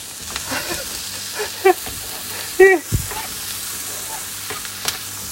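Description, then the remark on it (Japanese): Green bell peppers added to onions stir-frying in a pan: a steady hissing sizzle throughout, broken by spatula scrapes and two short squeaky, tonal bursts near the middle, with a faint tap toward the end. “ーマン入れた炒めていく”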